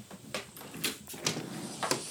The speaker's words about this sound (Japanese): この音ですよこの音。ね、窓開けます